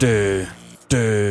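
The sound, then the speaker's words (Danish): A single voice sings a rock melody on nonsense syllables instead of words, two loud sustained notes separated by a brief pause, with nothing else in the background. “og sangen, hvis melodi lyder sådan her.”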